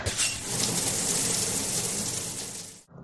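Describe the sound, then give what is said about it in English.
Shower water runs in a steady, hissing rush for about three seconds, then cuts off abruptly near the end. No one speaks. “Oh, God, I should shower.”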